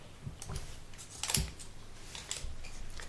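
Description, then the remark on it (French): Soft paper rustling and crinkling, with a few short crackly bursts and one sharper crunch midway, as a small folded paper slip is drawn and unfolded. No talking. “On va vous laisser tirer un petit papier chacun.”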